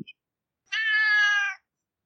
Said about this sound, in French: Bonjour, ah. bonjour, salut le chat. Le chat est d'accord avec moi.